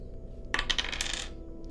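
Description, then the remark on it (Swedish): Dice are rolled during a game, coming up nine, clattering and tumbling across a hard surface in a quick burst of bright rattling clicks lasting under a second, then settling into a quiet low hum with no voices. “Jag slår nio det är nog för att han ska rycka till.”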